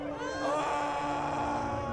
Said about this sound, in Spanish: Pero Jesús lanzó un fuerte grito